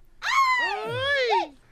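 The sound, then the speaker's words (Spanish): A pack of dogs outside barks and yowls at once, several overlapping cries rising and falling together in one sustained burst of just over a second, fairly loud, with no talking. “Hmm, ahí tiene una jauría ahí afuera.”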